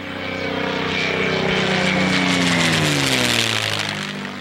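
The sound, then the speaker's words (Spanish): An American propeller fighter plane roars in loud over the small town of Villalba, Sicily, on the morning of 14 July 1943, its engine drone swelling steadily as it approaches and descends almost to the rooftops, before the pitch sweeps downward as it passes low overhead. No voices. “es un caza de origen americano y a medida que se acerca empieza a descender, casi que roza los techos.”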